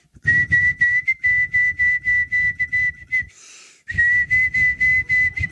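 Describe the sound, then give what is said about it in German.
Someone whistles a single high note over and over, fairly loud, in short rhythmic pulses, imitating a street performer on a narrow sidewalk corner who played only the same note on a flute, with a brief breathy pause partway through. “stand an dieser schmalen Bürgersteigecke heute ein Straßenkünstler, was ich per se toll finde, mit einer Flöte und der hat einfach immer nur den gleichen Ton gespielt, wie meine Tochter.”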